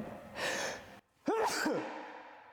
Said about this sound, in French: Il y a une poutre qui s'est écroulée ou pas Ça a fait un bruit monstrueux. Ça, bien. C'est juste un petit éternuement normal.